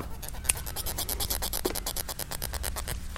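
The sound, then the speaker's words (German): Steady squeaky scraping of vegetable stems rubbed against each other, played as an instrument of a vegetable orchestra: a rapid series of rough strokes with a sharp click near the start, no voices. “Oder auch man nimmt die Stiele, man muss sich schauen, das ist ein heikles Instrument, und reibt die aneinander.”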